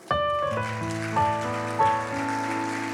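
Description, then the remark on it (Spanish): Steady applause from a crowd giving a round of applause to Christ, a dense crackling patter, over sustained chords of music that shift a few times. No one speaks. “Quiero que le damos un aplauso a Cristo por los cuatro.”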